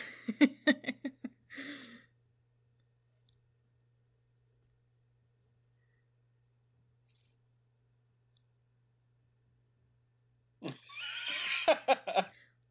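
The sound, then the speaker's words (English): A voice imitates a horse's whinny: a short burst of choppy, pulsing vocal sounds, a long silence, then a louder, wavering, high-pitched whinny near the end. “she whinnying like a horse?”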